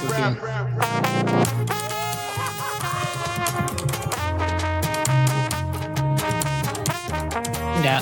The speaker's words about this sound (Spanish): Eh, allá no hay un bajo, por ejemplo, es un guitarrón. Lo que está sonando, estoy casi seguro que es un guitarrón